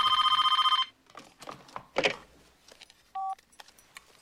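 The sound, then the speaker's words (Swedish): A home telephone rings in the evening with a fast electronic trill for under a second, followed by handling clatter and rustling, then a brief two-tone beep near the end. “Lite senare, det är mörkt ute, Sydney vaknar av att telefonen ringer och klockan är nu 20 över 7.”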